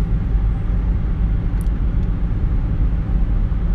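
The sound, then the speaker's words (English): Steady low rumble of a car driving on the road, heard from inside the vehicle, with continuous engine and tire noise and a couple of faint brief clicks, no talking. “Obviously, like discredit the background noise of my car driving on the road.”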